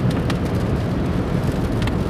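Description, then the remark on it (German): Steady rain patters and crackles on a car's roof and windows, a dense, continuous stream of small droplet ticks over a low rumbling background, with no voices. “Also das Knistern hier, das ist nicht irgendwie, ihr hört den Podcast nicht von der Schallplatte, das sind die Regentropfen.”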